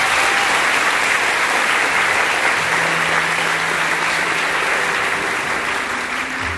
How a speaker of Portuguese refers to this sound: Amém? Aplauda a palavra de Deus.